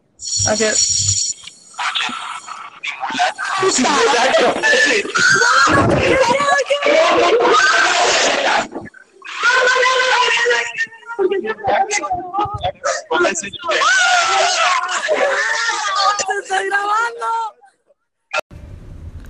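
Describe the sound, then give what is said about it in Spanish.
Girls at a school scream loudly and frantically as they run out, several high-pitched voices overlapping in long chaotic bursts with brief pauses, intense, amid general commotion. “Inserta en el clip de cómo siguen las medidas de seguridad estas locas que salieron corriendo.”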